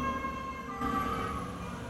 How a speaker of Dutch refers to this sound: Um, er komt weer een ambulance langs.